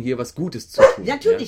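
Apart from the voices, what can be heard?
dog barking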